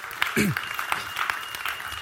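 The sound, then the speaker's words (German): An audience claps steadily for two seconds, a dense patter of many hands, while a single voice briefly calls out near the start. “Wäre kein Applaus gekommen, wenn du nicht angefangen hättest.”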